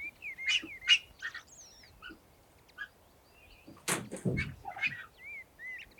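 Cinereous (Eurasian black) vulture cries, from birds acclimatising back to the wild in an enclosure a few metres away: short, scratchy chirps and thin whistled squeals in scattered bursts, mixed with a few dull knocks and rustles. The calls are fairly faint against a quiet outdoor background, with no voices.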